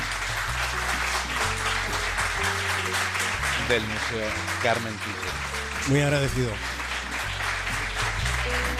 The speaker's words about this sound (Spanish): Que resuenen los aplausos, porque en Punta Norte sueles estar solo. Allí resuenan las olas del mar, que no está mal, pero bueno, los aplausos son más calurosos y más calientes que, eh, que las olas del mar en esta época del año.